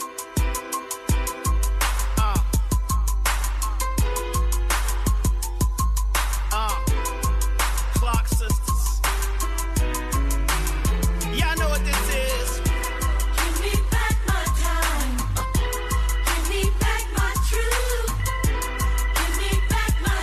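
A full-band song from a new album plays loudly and steadily throughout, driven by a crisp, regular drum beat over deep sustained bass, with bright layered melodic parts and a gliding lead line rising in the middle.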